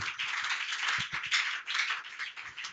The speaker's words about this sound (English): Somebody give the Lord a clap of hand. Listen, I said, clap your hands.